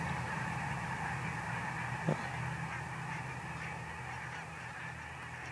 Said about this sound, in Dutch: Ja, oh, daar komt alles gaat omhoog. Heel veel brandganzen geven een prachtig eh, gezicht. ja, misschien is er een roofvogel in de buurt. Daar schrikken ze altijd enorm van. Ik zie nu even niks erboven cirkelen. Maar eh, ja, wat een spektakel zeg.